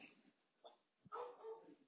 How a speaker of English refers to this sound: Shout out to my dog in the background. You might hear her annoying the hell out of all of us. She's a sweet girl, though.